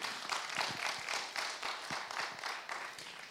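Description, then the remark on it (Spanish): A crowd claps together in a steady, dense burst of applause given to God, many hands overlapping with no voices standing out. “Dale un aplauso nuevamente a Él.”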